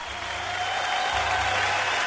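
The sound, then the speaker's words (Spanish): An audience applauds steadily to welcome a guest on a live broadcast, a dense, continuous patter of clapping hands that holds at an even loudness for the whole stretch, with no voices breaking through. “Excelente, estamos en vivo y recibimos con los aplausos al señor.”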